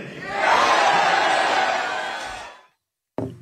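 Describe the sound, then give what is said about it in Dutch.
A large crowd at a Trump campaign rally roars and cheers loudly for about two and a half seconds, answering yes when asked whether he should do the debate: a dense sustained wall of shouting voices that swells and then cuts off, followed by a brief burst of sound. “Ja, dat lijkt me toch een ja van het publiek.”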